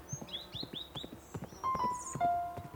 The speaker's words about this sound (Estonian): ta ei oleks osanud arvata, et tegelikult kõlabki hobuse kabjamüdin täpselt nii nagu filmides. selline tume ja madal, ühtlane, rütmikas müdin